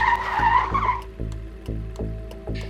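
Car tires screech loudly for about a second as the driver deliberately loses control, runs over a couple of garbage pails and stops toward a fence, then give way to a steady, rhythmic low rumble of the engine pulsing as the car sits stopped. No one speaks.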